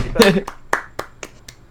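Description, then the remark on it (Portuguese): A single person claps hands about six times in a steady, even rhythm, applauding himself, the sharp slaps moderately loud, following a short burst of laughter or voice at the start. “É, então, eu vou bater palma pra mim mesmo aqui também.”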